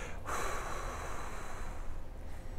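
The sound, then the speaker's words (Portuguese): A forceful, noisy breath drawn in sharply and pushed back out, loud, demonstrating a wrong way some people breathe, filling about two and a half seconds with rushing airy hiss and no talking. “Tem gente que faz a respiração assim, ó.”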